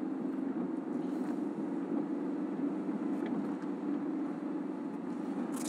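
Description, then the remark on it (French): A car engine hums steadily as the vehicle drives along, a constant low rumble with road noise, heard from inside and unchanging in loudness throughout, with no voices. “On part avec ce véhicule alors.”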